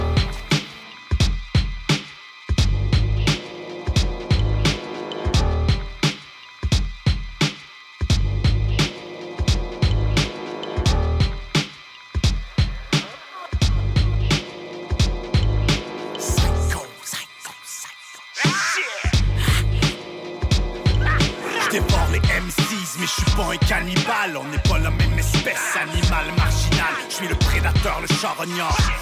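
A loud hip-hop instrumental beat with booming kick drums in a steady, punchy rhythm, briefly thinning out midway before returning fuller and denser. No vocals.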